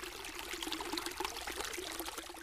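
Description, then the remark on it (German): Water of the Ohm river in Germany flows steadily with a continuous bubbling, trickling rush and small splashes throughout, at moderate volume, with no voices. “Mit der Ohm als meine treue Begleiterin kam auch innerlich so einiges in Fluss.”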